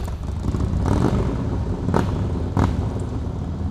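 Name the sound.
motorcycle engine revving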